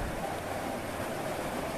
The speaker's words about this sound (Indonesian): Di luar, hujan semakin menenangkan.